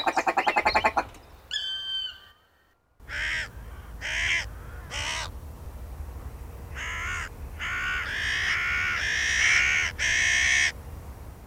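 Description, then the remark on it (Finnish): A crow caws repeatedly in a loud, harsh series of rasping calls, some bunched close together, over a low outdoor rumble, after a brief burst of other bird chatter at the start. “Sen hyvin tunnettu raakkuminen on sen laulu, varoitusääni, vihanilmaus, yhteinen merkkikieli.”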